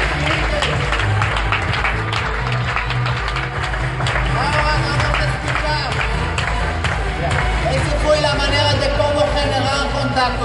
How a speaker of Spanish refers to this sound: Muchas gracias. Fuerte aplauso. aplauso.